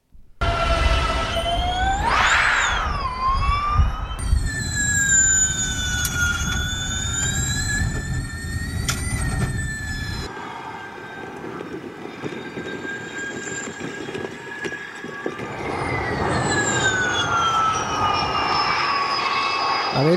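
Formula E electric race cars whine past, their high-pitched electric motor tones rising and falling as they accelerate and brake. Several cars overlap, loud, for the whole stretch, with no talking.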